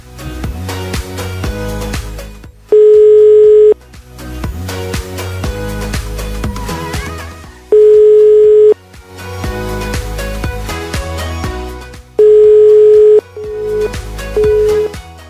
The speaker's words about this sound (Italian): Suona libero.